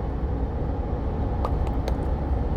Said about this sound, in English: If it seems louder than normal, let's put it that way, uh, it is because my rear differential is about to grenade. So, truck issues.